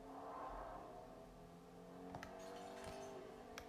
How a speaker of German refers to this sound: Ah, Auto. Pass auf, das kommt auf dich zu. Nee, kommt's nicht.